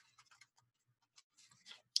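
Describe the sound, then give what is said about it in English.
Soft papery clicks and rustles of a self-made mantra card deck being shuffled, a quick flurry near the end, then a single sharper snap as a card is drawn. Quiet, with no voices. “So um, I shuffle it. I do start here, and I I'll just pick one.”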